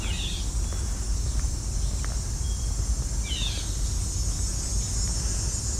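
A red-eyed vireo gives two short, nasal, downslurred calls a few seconds apart, over a steady high insect drone and a low background rumble.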